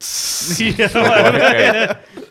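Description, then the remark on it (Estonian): A voice imitates cans hissing open with a sharp, breathy psss burst, then follows it with animated talking and chuckling, fairly loud. “mingi purgid.”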